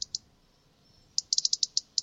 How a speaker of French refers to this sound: Oui, donc c'est un oiseau qui a une tache euh, ah, rouge. un rouge gorge.